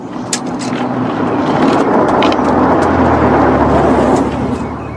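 A car engine runs steadily, a low rumbling drone with a rising hum as it revs slightly, plus some higher rattles and clicks near the start.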